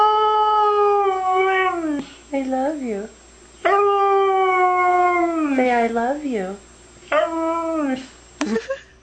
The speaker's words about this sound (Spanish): El perro que habla, vaya.